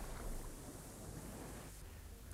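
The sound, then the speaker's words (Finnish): Atlantic Ocean waves wash steadily over the iron plates of a vessel's hull, a continuous rushing and sloshing of water that eases slightly near the end, with no voices. “Professori Aronnax, Konsei ja valanpyytäjä Ned makasivat tahmeilla rautalevyillä, joita Atlantin suolaiset laineet pyyhkivät.”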